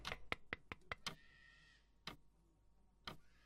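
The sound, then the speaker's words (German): Knocking on a glass pane: a quick burst of six crisp taps, then two single knocks spaced about a second apart, with a faint ringing after the first burst. “Ich klopfe mal an die Scheibe.”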